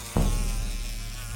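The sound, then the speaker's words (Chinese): A swarm of flies drones in a steady, low buzzing hum that starts abruptly and holds at a fairly even loudness, with no voices over it, depicting the plague of flies that filled all the land of Egypt. “苍蝇灾，一堆苍蝇充满着埃及全地。”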